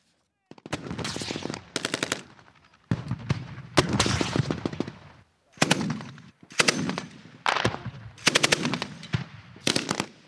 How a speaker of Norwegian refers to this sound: Kanonene og bombekasterne drønner mens mitraljøsene smatrer. Her helt ytterst mot grensen til Polen, på øvingsfeltet, til den 5000 mann sterke marinebrigaden som tilhører den russiske Østersjøflåten, med hovedbase i Baltisk